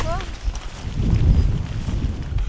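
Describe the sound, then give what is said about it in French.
Strong wind roars and buffets the microphone in a heavy low rumble, swelling into gusts midway, with a brief faint chirp at the very start, on a Roman road through farmland. “Le vent redouble d'intensité.”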